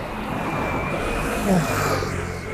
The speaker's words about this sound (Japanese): ちょっとうるさい、うるさかったですね。抜け道でもあるんで、車。